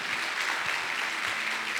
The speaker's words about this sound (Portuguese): Você pode dar uma linda salva de palmas para Jesus aí?